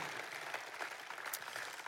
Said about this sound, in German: Lass uns Gott für die Zahlen Applaus geben. Das ist wirklich, das ist krass.